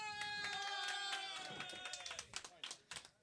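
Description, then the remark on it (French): Audience applause with scattered crowd noise, given when the audience is asked to applaud if they believe in Santa Claus, the clapping growing louder and more broken toward the end, over a sustained harmonic tone that fades out partway through. “Les autres qui n'ont pas applaudi, vous êtes toutes dans la marde.”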